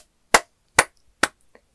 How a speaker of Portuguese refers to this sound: Aplausos